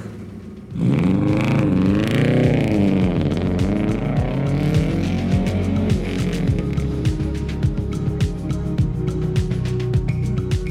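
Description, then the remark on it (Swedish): A V8 car engine roars to life, its deep rumble rising and falling as it revs and keeps idling loudly with a rough, throbbing pulse, no voices over it. “Får höra på V8 här.”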